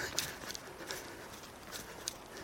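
Trail running poles clack against rocky ground in a loose rhythm, several sharp hard taps over a steady outdoor hiss, moderately loud, with no one talking.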